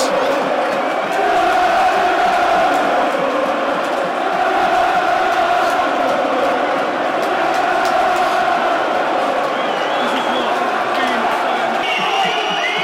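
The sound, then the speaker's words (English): A loud, dense football crowd at the Den, Millwall's stadium, on a cup night roars continuously, with massed voices chanting and cheering in a sustained wash of noise, occasional shouts rising above the steady din. “great, great cup nights at the Den.”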